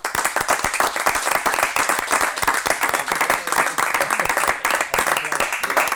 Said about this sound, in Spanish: Vamos a recibir con un aplauso fuerte